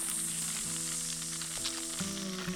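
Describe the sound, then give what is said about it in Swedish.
A quiet, steady sizzling hiss like acid corroding, coming from deep inside a snake, runs continuously over a low, droning tonal hum that shifts pitch a few times. “ni hör ett tyst så här syrefrätande ljud.”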